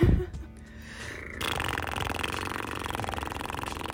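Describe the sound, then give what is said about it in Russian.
A person imitates a cat's purr with a low, rumbling, steady vibration that grows louder after a brief pause and continues sustained for several seconds. “А мы тоже будем урчать, да? О, у тебя даже получается лучше, чем у моей кошки.”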